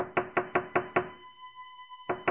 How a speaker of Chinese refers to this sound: 大野狼一听，立刻跑去面粉店，威胁老板在他的脚上裹上厚厚的白面粉，然后又到小羊家敲门。